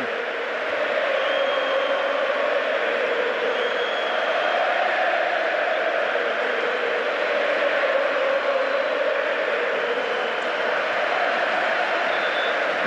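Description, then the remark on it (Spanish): A crowd at the Monumental stadium applauds without pause during a minute of applause honoring a man on the first anniversary of his death, a dense and steady roar of clapping that holds at an even, fairly loud level for the whole stretch, with no voices speaking over it. “minuto de aplausos.”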